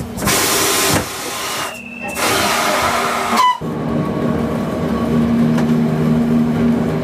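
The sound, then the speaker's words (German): Loud bursts of hissing air from an old electromechanical electric railcar with wooden bench seats, standing at the Gavaglia stop, cutting off abruptly and giving way to a steady electric hum with faint whining tones. “Was ist denn die Faszination an diesen alten Triebwegen?”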